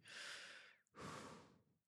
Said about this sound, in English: So all I need all I actually need is to make sure that my mic works, and uh, when I when I hit the record button, uh, it should pick up everything that I'm I'm trying to do with the mic. That includes breathing